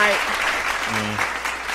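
A steady burst of clapping from a group fills the space, dense and fairly loud, with a faint tonal hum briefly underneath.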